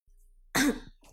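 A man gives a single short, throaty cough to clear his throat, a loud rasping burst about a third of a second long, with no talking around it.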